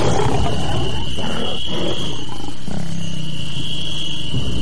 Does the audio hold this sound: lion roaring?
yes